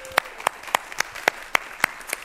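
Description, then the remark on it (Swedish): A church audience claps together to welcome visitors from Burma, in a steady, even rhythm, about eight sharp claps at a brisk, regular beat, with a soft background wash and no talking over it. “Välkomna från Burma, ska vi ge dem en applåd?”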